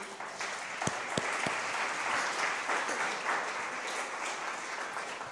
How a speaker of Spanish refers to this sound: Amén. Amén. Denle un aplauso a Dios, por favor.